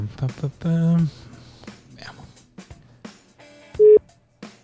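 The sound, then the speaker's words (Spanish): Two short, steady electronic phone tones sound about three seconds apart as a phone call is placed, the first low and buzzy, the second higher and brief, with faint chatter and noise in between. “Ahí está marcando.”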